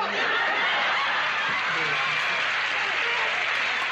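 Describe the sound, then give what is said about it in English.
A studio audience applauds steadily because a character is getting what's coming to him, a dense, sustained wash of clapping that stays loud and even throughout, with a hint of laughter mixed into the crowd noise. “The audience is applauding because he's getting what's coming to him.”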